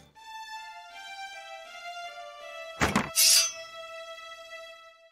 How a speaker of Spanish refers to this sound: Pues bueno, ahí va la cortinilla de la porquería.